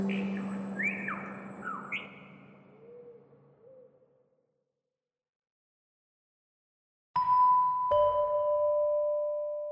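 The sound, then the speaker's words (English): Birdsong played by Forgotten Songs, an art installation in Sydney recalling birds that have disappeared from the city: several bird calls with rising, whistled notes and a low hum beneath, fading out; after silence, two resonant chime-like tones ring out and sustain. “Today, we visit Forgotten Songs, an art installation that reminds Sydney residents of the birds that have disappeared from this changing cityscape.”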